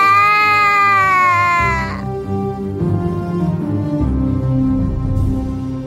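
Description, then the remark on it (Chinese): A young child bursts into loud, high-pitched wailing that slides downward for about two seconds, then breaks into lower, uneven sobbing and whimpering that continues to the end. “好了，宝宝，别哭了，妈妈会去救他们的。”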